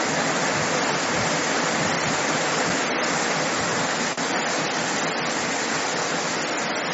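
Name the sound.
heavy rain falling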